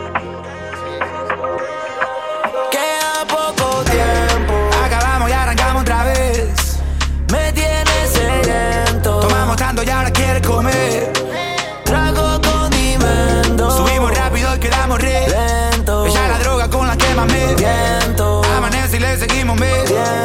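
A hip hop track plays loudly on the radio station Radio Nitro 96.3, opening with a short melodic intro before a heavy, booming bass beat drops in and drives a steady rhythm, with a brief break midway.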